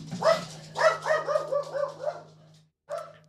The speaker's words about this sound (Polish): Tak samo zaczyna szczekać